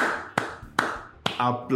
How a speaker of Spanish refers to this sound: en cuanto escuchen que aplaudo, todos aplauden.